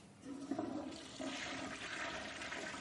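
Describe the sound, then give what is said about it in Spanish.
A toilet cistern flushes in a bathroom in one steady, rushing gush of water that swells after a brief start and holds at a loud, hissing level with a gurgling low churn underneath. No one speaks. “Al escuchar la cisterna, Berlín sonríe y hace un gesto de silencio.”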